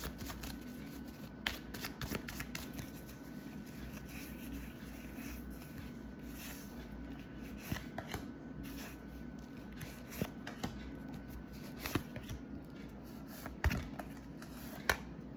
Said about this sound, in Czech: Já už se dívám na vaši fotku, míchám u toho karty a my se teda podíváme na ty vaše konkrétní otázky.